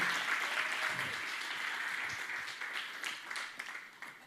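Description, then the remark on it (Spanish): An audience applauds steadily in glory to God, a dense wash of many hands clapping at once that holds for several seconds with a few sharper claps standing out near the end. “Sí, vamos, dele una, una fuerte gloria a Dios por eso.”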